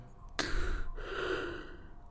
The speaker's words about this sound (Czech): Myšlenku přerušilo zívnutí?